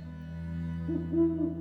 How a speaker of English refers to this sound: Hoot, hoot.